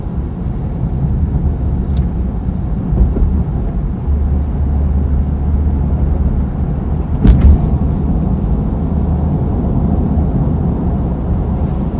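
Steady low rumble of a car moving smoothly along a road in rainy weather, a continuous engine and tire drone heard from inside, with a brief thump around the middle and no talking.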